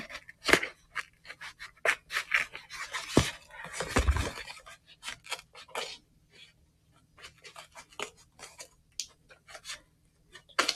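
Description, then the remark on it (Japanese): Small portable scissors snip repeatedly through the packaging of a Christmas gift parcel received by post, a close series of short crisp cuts and rustles with a louder crunch partway through, no talking. “ね、この、あの、携帯用のハサミなんですよね。”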